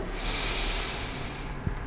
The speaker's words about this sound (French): Inspire par le nez en levant le bras droit en l'air.